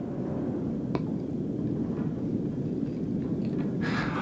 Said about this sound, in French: On entend les vagues.